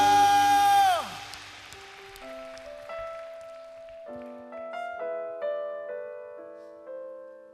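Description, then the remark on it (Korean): An audience's dense applause of glory and thanks to the Lord fills the first second, then breaks off as soft, sustained keyboard chords take over and carry on alone. “우리의 필요를 채워주실 우리 주님 우리의 결핍을 충만히 채워주실 우리 주님께 여러분 믿으시는 만큼 주님께 영광과 감사의 박수 올려드립시다 할렐루야”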